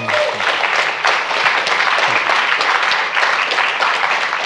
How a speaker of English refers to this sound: Go ahead. You want to clap. I want to clap.